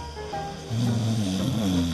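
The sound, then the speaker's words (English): A loud snore: a low, rattling drone that swells in about halfway through and holds steady to the end, over a faint background hiss. “Snoring is easy to laugh at, but not for the snorer.”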